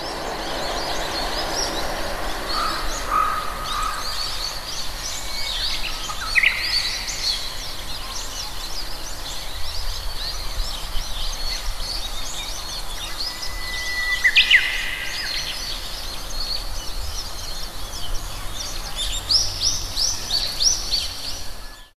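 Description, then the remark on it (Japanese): A Japanese bush warbler sings its clear whistled spring hō-hokekyo phrase several times at intervals, recorded on a smartphone, over a steady broad rumble of a train, such as a Shinkansen, passing on a nearby railway bridge. “うぐいすの鳴き声を収録してきた”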